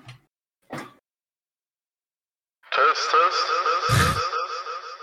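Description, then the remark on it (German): After a couple of brief sounds and a pause, a voice comes in heavily processed with a strong echo, its repeats smearing together into a dense, continuous wash that stays loud to the end. “Ja, das Echo ist noch viel zu, viel zu stark.”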